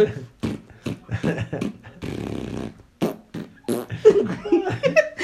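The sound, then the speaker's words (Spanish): Amid animated talk and chuckling, someone imitates a fart: one raspy, buzzing burst lasting about a second, fairly loud, before the speech picks back up. “Impresionante ese pedo.”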